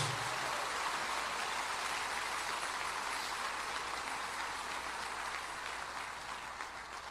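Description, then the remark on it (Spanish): A church audience applauds in glory to God, clapping steadily in a dense, continuous wash of applause that holds for about seven seconds before easing slightly at the end, with no voices over it. “Le ese aplauso de gloria a Dios.”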